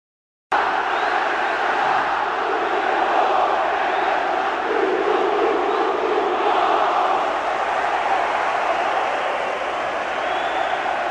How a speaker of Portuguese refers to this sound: É, esse barulho que vocês ouviram foi o som da torcida do esporte depois do apito final aqui na Ilha do Retiro.